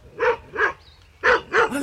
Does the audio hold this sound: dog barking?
yes